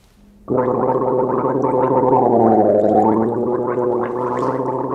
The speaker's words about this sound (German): ja, so hörte die Sendung damals wirklich auf mit einem langen Gurgelgeräusch, auch ein Zeichen für die eher gelassene Stimmung, obwohl sich die Lage ja, wie gesagt, schon ziemlich zuspitzt.